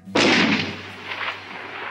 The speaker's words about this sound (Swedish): Använder skjutvapen. En gång sköt mot spöken